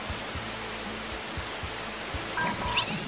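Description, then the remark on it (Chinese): The Huangguoshu Waterfall, 77.8 metres high and 101 metres wide, roars in a steady, dense rush of water noise that holds constant throughout, with a few faint tonal notes surfacing near the end. “刚才的黄果树瀑布真是太壮观了呢！”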